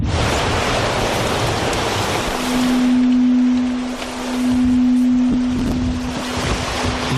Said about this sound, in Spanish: que estamos escuchando se grabó en las islas Lofoten, en el norte de Noruega. Es la huella sónica de la vida marina.